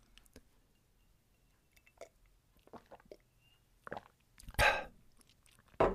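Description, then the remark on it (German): Someone takes a sip of water: soft clicks and a few small gulping sounds, followed by a louder breathy swallow and a sharp exhale at the end, with no talking. “So, jetzt muss ich mal kurz einen Schluck Wasser nehmen.”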